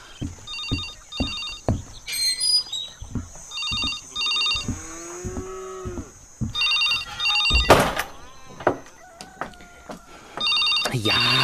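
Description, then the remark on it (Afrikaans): A telephone bell rings loudly in repeated short double bursts, while thumps, knocks and other clattering household noises sound between the rings. “Wie anders antwoord ooit die telefoon?”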